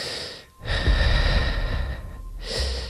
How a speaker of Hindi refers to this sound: जब उसे साफ साफ किसी के सांसों की आवाज धीरे धीरे करीब आती सुनाई दी